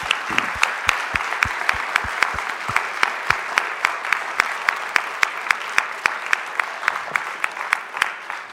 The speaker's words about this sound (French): Voilà, je vous propose d'applaudir encore une fois le professeur Lévra.